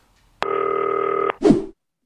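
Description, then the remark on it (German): A steady electronic telephone tone from a green telephone placing a call to a person's extension sounds for about a second, ending abruptly, followed by a short burst of noisy clatter like a phone line connecting or a handset being picked up. “die Durchwahl für Werner Expertise so, klingelt.”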